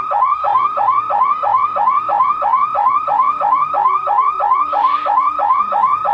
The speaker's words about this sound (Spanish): vamos, a ver, cómo suena primero una alarma eh, de coche normal. Normal. A ver.